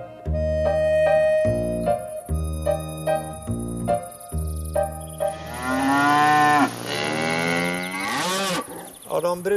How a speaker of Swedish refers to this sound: korna där det är långhåriga Highland Cattle-kossor.